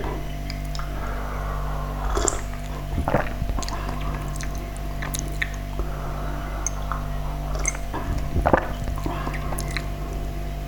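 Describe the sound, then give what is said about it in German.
A few short, wet slurping sips of tea, spaced several seconds apart, with soft mouth and liquid noises against a steady low background hum and no talking. “Ich kann ja schon mal kurz nippen. Mal gucken, wie er schon schmeckt.”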